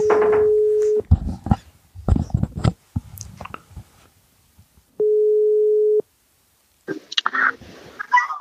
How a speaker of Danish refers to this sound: Vi prøver lige at ringe op. Jeps. Skal vi se her. Han ved jo nok ikke noget om det. Nej, vi må håbe, han tager telefonen.